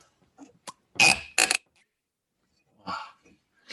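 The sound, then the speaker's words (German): Two loud, harsh creaking bursts from a bottle being opened, followed by a softer rasping creak after a pause, with small clicks and rustles between them and no talking. “Das so Knarzen hörte man, das Ploppen glaube ich nicht.”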